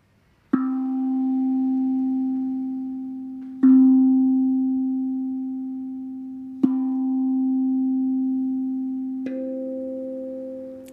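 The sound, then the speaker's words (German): A low, pure sustained tone for the root chakra is struck four times at steady intervals, each strike ringing on and fading slowly into the next; the final strike carries a slightly brighter overtone. No talking. “Spür da gerne mal rein, währenddem ich jetzt diesen Klang spiele, diesen Ton.”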